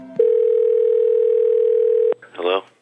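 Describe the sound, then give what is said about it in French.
A steady, loud telephone dial tone hums for about two seconds, cut off by a sharp click, followed by a brief burst of a voice, as a police officer picks up his phone to call a man. “Le policier décroche son téléphone pour appeler le mari de l'infirmière dont il avait pris les coordonnées.”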